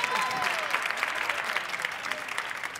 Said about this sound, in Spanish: Y... un aplauso para la alegría.